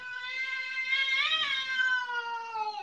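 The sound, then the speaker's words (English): A cat in a video being played lets out one long, drawn-out meow that swells and bends in pitch midway, loud, with no talking over it. “Who's afraid the cat's gonna”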